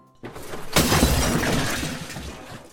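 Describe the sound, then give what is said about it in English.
Glass shatters with a sudden loud crash, followed by a bright tinkling spray of falling shards that lingers and slowly fades over a couple of seconds. “You don't want to go breaking the Herschel telescopes.”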